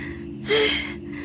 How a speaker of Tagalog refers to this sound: Unang gabi mula nang ibigay ko sa kanya ang manikang napulot ko, nagising ako dahil narinig ko na parang nahihirapang huminga ang kapatid ko.